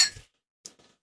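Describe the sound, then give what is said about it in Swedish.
A sharp, ringing clink of glasses touching in a toast, bright, fading within a moment, followed by a couple of faint softer taps. “Skål. Skål.”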